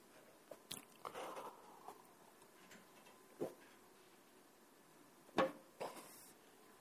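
A speaker pauses mid-talk to take a drink of water: a handful of soft, irregular swallowing and mouth clicks separated by quiet pauses, with a slightly louder pair of gulps near the end and no talking.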